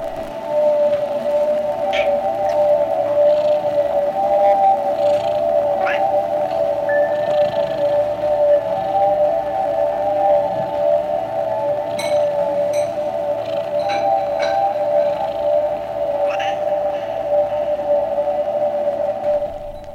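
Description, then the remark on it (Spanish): Ambient synth music made by the cat of a New York producer and DJ stepping on the synthesizers one Sunday morning: a steady, droning mid-pitched chord held throughout, dotted with scattered soft blips, clicks and a brief sliding tone, with no talking. “Sí, es el gato de la productora y DJ neoyorquina … que una mañana preciosa de domingo se puso encima de los sintes”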